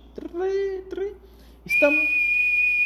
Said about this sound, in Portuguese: Aí tem um, um policial apitando aqui, ó.